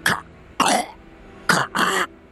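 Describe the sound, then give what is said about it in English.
A person imitates a regular-sized eagle perched on a rock coughing, with four raspy, throaty bursts in an uneven rhythm, the last two close together, loud with no other talking. “I walk up to the eagle. Where is Den? And it, it kind of just like coughs”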